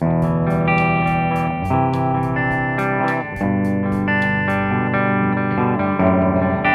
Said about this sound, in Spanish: Puedes grabar una tarola, un tom, platillos, guitarras acústicas. amplificadores de guitarra en modo clean.